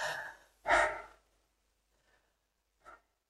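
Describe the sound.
A person demonstrates rapid breathing in and out through the mouth in two loud, airy breaths one after the other, followed by silence and a couple of faint, brief breaths.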